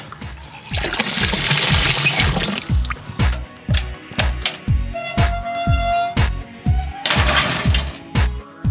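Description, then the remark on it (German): Water gushes from an outdoor tap at a fountain in two loud, hissing bursts, with a run of regular clacking steps or knocks in between. “Geh mal an den Baum und hier ist ein Brunnen, ein Wasserhahn. Hier könnte man auch mal einen Kopf drunter halten.”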